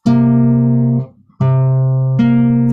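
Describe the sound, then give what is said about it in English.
Sustained pitched notes played alone on a guitar: a single held tone, a brief pause, then a lower note joined by a higher one ten semitones above, ringing together at steady volume. “And so if we have the interval 10, the interval 10 is 10 semitones, and it sounds like this.”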